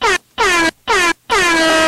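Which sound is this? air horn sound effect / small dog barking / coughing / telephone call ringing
air horn sound effect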